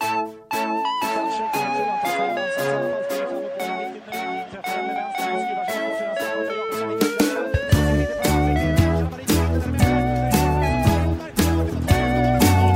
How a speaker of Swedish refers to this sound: Då tryckte jag på record där och så kommer du alldeles strax höra en signatur. Della Sport!